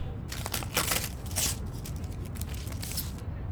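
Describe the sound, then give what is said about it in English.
Crinkling and rustling of a paper message bearing coordinates being torn open and unfolded, a series of crisp bursts over a few seconds, with no voices. “Just a piece of paper. Nothing dangerous.”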